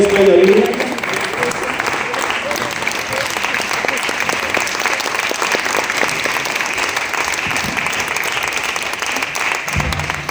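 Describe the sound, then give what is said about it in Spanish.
Sustained applause from a standing audience honoring two soldiers, a dense, steady patter of many hands clapping at an even loudness for about ten seconds, with a brief tonal sound at the very start. “El público está de pie, aplaudiendo de verdad.”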